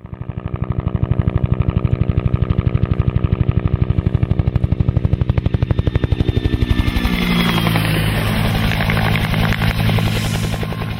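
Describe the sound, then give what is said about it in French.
A Bell UH-1B Huey helicopter thunders by, its rotor blades chopping in a rapid, steady rhythm over a loud engine whine, the beat blurring into a broader roar as it passes. “Les euh, grands amateurs d'aviation et d'hélicoptères auront peut-être même reconnu le son unique de cet appareil mythique servant, euh, entre autres pendant la guerre du Vietnam, le fameux euh, euh un appareil donc Bell UH-1-1B Huey”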